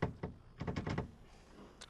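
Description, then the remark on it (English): A door handle is tried and rattled against a locked latch, with a couple of single clunks and then a quick burst of four jiggles, and a faint click at the end. “Uh, door's locked, too.”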